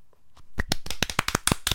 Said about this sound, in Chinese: 我以为就是你那边装可爱，我不知道你真的想我拍手。